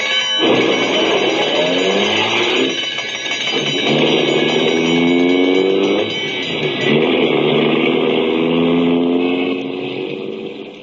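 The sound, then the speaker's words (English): An ambulance engine roars and revs hard, pitch climbing through several gear shifts as it speeds away on a call to 234 South Street, loud throughout with no voices. “An ambulance, Mac, is a sacred thing. It is a chariot of mercy.”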